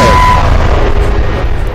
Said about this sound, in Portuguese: Foi de novo, explodiu de novo. Hoje, hoje teve dupla, explosão, dupla explosão